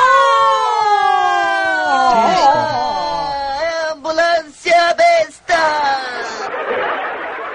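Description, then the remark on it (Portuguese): A voice mimics an ambulance siren with a loud, wavering wail that rises and falls, breaks into a few short choppy bursts, then trails off into breathy hiss. “Ambulância besta!”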